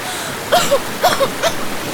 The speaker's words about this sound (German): Ich glaube, ich glaube, wir sind mitten in einem Fluss gelandet. Ich hoffe, du kannst schwimmen.